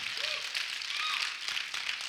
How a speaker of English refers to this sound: Uh, I like your pastor. Can you give him a big clap? Come on, give him a big, big clap.